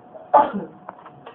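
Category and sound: human body sound, sneeze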